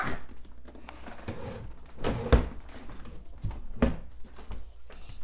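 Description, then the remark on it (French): Drawers slide open and shut with a scraping rumble, punctuated by two sharp wooden knocks as they close, with no talking. “voilà, les tiroirs.”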